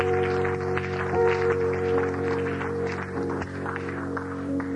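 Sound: audience clapping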